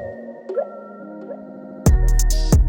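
A hip hop track's intro: soft, sustained synth tones with a few gliding notes, then a loud, bass-heavy beat crashes in near the end. No voices.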